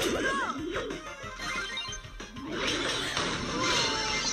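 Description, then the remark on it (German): A loud, dense burst of video game combat noise as an ultimate attack lands: crashing impacts and smashing hits layered over whooshing, sweeping effects, with faint voices tucked underneath. “Oh, Ulti hat gescheppert.”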